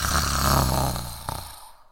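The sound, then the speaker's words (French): A single loud, rasping snore drawn out over about a second and a half, rumbling low and harsh before trailing off into a softer breathy tail, with no talking. “Mais comme c'est bizarre, se dit le chasseur étonné, comme cette vieille femme ronfle fort, je vais aller voir si tout va bien.”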